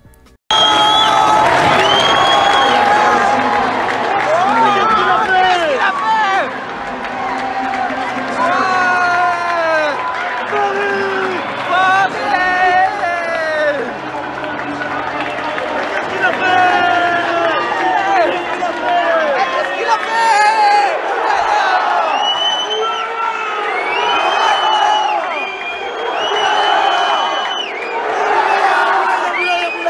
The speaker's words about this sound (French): je, je vous, laisse écouter le stade et, et l'explosion de joie.